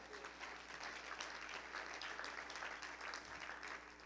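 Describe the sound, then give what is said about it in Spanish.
An audience claps together for the Lord in sustained, dense applause, a steady wash of many hands beating at an even level throughout, with no distinct voices standing out. “Y dar un aplauso al Señor por eso.”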